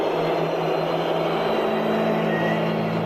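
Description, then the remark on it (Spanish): A big stadium crowd at the Supercopa in Saudi Arabia roars with a steady wall of booing during the minute of silence for the late Franz Beckenbauer. Shrill whistles cut through now and then, loud and unbroken for the whole stretch. “Así sonaba el minuto de no silencio por una leyenda del fútbol.”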